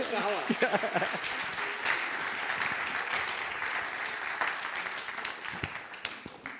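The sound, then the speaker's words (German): A crowd applauds steadily, a dense wash of clapping hands that holds for several seconds, with a brief voice or cheer rising over it near the start. “okay, Applaus”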